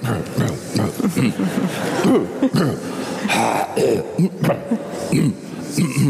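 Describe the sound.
Throat clearing and rough coughing from one person, several gruff bursts in a row mixed with low chuckling sounds and voiced grunts.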